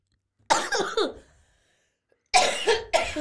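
A loud coughing fit: a quick cluster of harsh coughs, a brief pause, then another burst of two or three rough, hacking coughs.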